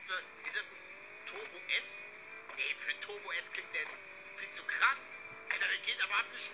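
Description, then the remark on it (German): A racing game car engine, a Porsche Cayenne, roars at high speed, its pitch climbing and dropping through repeated gear shifts, with people talking over it. “Wir sehen hier gerade den Porsche Cayenne.”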